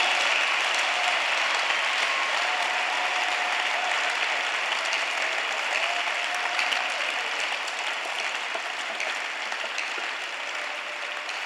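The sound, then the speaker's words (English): A large crowd claps steadily and continuously, a dense wash of applause that stays loud and even throughout without any voices standing out. “If you are not clapping, Satan has possessed you or has even taken over a part of your life.”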